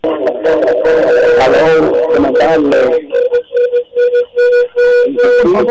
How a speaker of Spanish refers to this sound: baja el radio para que no te produzca retroalimentación.